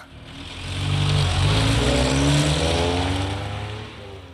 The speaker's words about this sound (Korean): 아, 오늘따라 택시가 없네. 아, 저, 택시! 택시! 아, 고맙습니다. 저기, 동양동 가주세요.